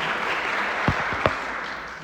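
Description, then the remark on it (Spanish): A short burst of audience applause after a talk, a steady wash of clapping with a couple of sharper claps standing out partway through. No voices are heard. “Sí, sí, merece un aplauso.”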